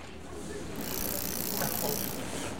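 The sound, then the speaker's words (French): A bicycle ride through Hiroshima under a lightly clouded sky, with cool wind: a steady rush of wind and rolling tire noise, with a bright hiss that swells after the first moment and then holds constant, with no distinct voices. “Le vélo me procure de bonnes sensations dans les jambes, et le vent frais qui fouette mon visage me permet de retrouver toutes mes capacités mentales.”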